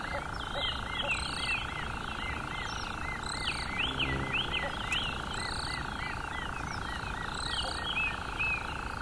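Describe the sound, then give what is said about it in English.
A rufous-cheeked nightjar churrs in a steady, unbroken drone, with repeated chirping calls from other birds or insects rising and falling over it in a busy nighttime chorus. “Or the rufous Cheek Nightjar.”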